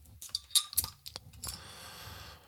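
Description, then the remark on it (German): A bottle of dark Zwickelbier being opened: a few light metallic clinks and taps, then a sharp crack as the cap comes off, followed by a steady, soft fizzing hiss. No one speaks. “Äh, ich habe jetzt unser Zwickelbier mitgebracht, unser dunkles Zwickelbier. Machen wir es einmal auf, wart.”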